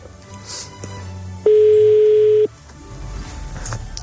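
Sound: telephone line ringing tone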